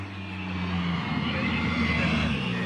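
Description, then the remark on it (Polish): A Skoda Fabia R5 rally car engine drones as it arrives at the finish of the first special stage of the Nadwiślański rally on a slippery surface, its low harmonic roar shifting pitch as it changes revs, steady and fairly loud against a broad wash of road and crowd noise. “A na mecie za chwilę zameldują się Maciej Lubiak i Grzegorz y, Dachowski, Skoda Fabia R5”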